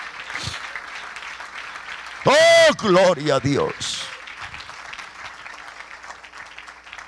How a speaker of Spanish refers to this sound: Dale ese aplauso al Señor, aleluya.